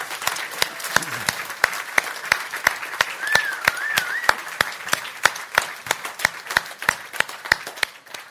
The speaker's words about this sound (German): Und vielleicht können wir am Alois mal einen kräftigen Applaus geben.